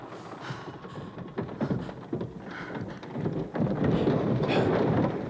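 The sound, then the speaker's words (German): A ceiling collapses: a heavy, continuous rumble of collapsing material, with scattered knocks and crashes that build into a dense, louder roar of falling debris toward the end. “Die Decke. Wir werden verschüttet.”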